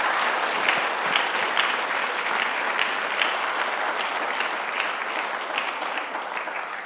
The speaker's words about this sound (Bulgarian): Има ли някой, който може да даде дарение на ръкопляскане тази вечер на Бога за това?